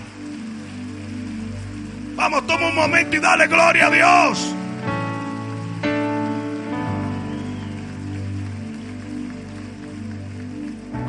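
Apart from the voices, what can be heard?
audience applauding loudly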